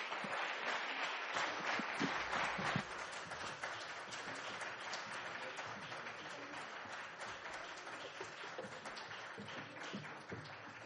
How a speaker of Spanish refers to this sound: tomemos nosotros un aplauso para continuar con mucha más música de las …